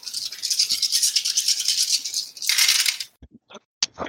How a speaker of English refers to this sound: So that's agility plus parkour plus blades. Yep. Plus cooler plus blades. Oh, okay, it's the same amount of dice I rolled last time. Great.